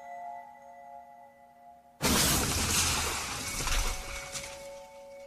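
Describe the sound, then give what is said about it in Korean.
After two seconds of quiet humming, a sudden loud crash bursts in as a heavy signboard, hanging high on a building just struck by a truck, slams down, followed by several seconds of dense shattering and scattering debris. “고층에 매달려 있던 간판이 사자를 덮쳤습니다.”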